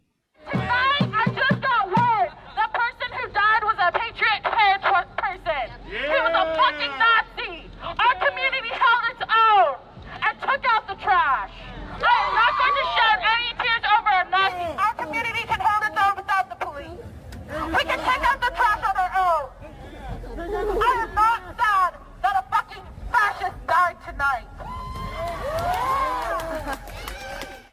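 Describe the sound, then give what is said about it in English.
A street crowd cheers and shouts, many voices overlapping in a loud, continuous roar of whoops and yells that rises in bursts and barely lets up throughout. “They're they're cheering, taking out the trash.”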